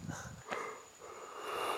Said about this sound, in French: Oh, mesdames et messieurs, mesdames et messieurs, je vous prie de bailler mon, mon bailler. Je vous prie d'excuser mon bâillement. Ah, je suis fatigué